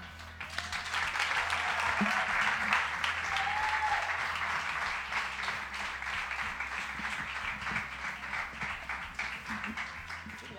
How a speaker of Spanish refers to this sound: ¿Le damos un aplauso y que se suba?